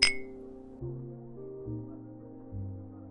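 A single bright, ringing clink of wine glasses in a toast at a bar at the very start, fading quickly, followed by low, steady background music that shifts in pitch a few times.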